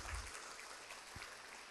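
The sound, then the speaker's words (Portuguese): A church audience applauds Jesus after a prayer, clapping together in sustained, dense applause. It is a steady wash of many hands with no voices standing out, fairly quiet throughout. “Se você crer, dá uma salva de palmas para Jesus.”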